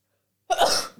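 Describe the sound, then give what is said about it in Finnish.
A single sharp sneeze bursts out after a moment of silence, a sudden loud, hissy blast that trails off quickly into a faint exhale. “Mulla tulee aivastus.”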